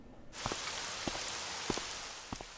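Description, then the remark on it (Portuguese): Steady rain hisses down after a brief quiet start, with a few heavier drops pattering irregularly against a surface. “It's raining.”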